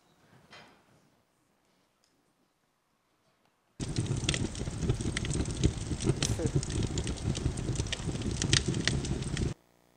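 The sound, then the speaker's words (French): A synthesized fire crackling, built from the statistics of a sound texture model: a dense, steady bed of hissing noise packed with sharp little pops, starting abruptly after a short faint sound and lasting about six seconds before cutting off. “le feu synthétique.”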